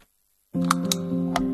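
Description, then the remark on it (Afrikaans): After a brief silence, a steady low hum begins, and three sharp clicks of light switches being flicked off sound over it at uneven intervals, as lights are switched off to reduce the impact of load-shedding. “Dis die klank van ligte wat afgeskakel word om die impak van beurtkrag te verminder.”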